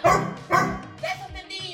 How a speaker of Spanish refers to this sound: y ha subido videos a través de redes sociales donde está tocando el piano y de tanto estar practicando y practicando día tras día, pues el perrito ya hace como que las notas musicales con ella.